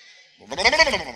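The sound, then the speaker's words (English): A person does a short, cartoonish imitation of a horse neigh, a quavering, wobbling whinny, fairly loud, lasting under a second after a brief quiet moment. “It's a cartoon horse.”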